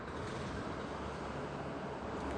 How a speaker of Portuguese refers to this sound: passando carro. Deu pra ouvir?